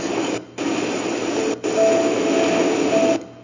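Sea waves breaking in a steady, roaring wash of surf that fills the whole clip, dropping out abruptly a couple of times before surging back. No voices.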